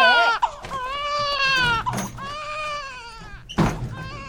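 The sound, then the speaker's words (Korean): A newborn baby wails in long, rising and falling cries, loud, with brief gasping pauses between bursts and no talk over it. “잔말 말고 얼마나 받아야? 아가 우는디.”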